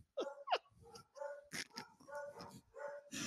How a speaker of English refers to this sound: I, I know. I apologize for the crazy dogs barking in the background.